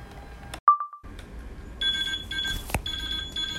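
An infusion pump's end-of-infusion alarm signalling that the IV drip has finished: a short electronic beep, then a steady, repeating multi-tone beeping pattern, fairly loud, with no one speaking.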